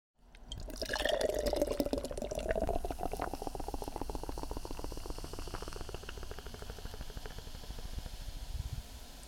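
A nitro beer can is upended and poured into a glass, starting with a gurgling rush that settles into steady, fizzy bubbling and crackling foam hiss, with no one speaking.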